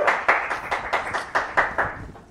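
A short burst of applause with distinct, fairly rhythmic claps, like a small group clapping together at a moderate level for a couple of seconds, then tapering off.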